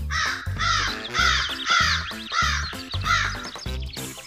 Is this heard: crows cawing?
yes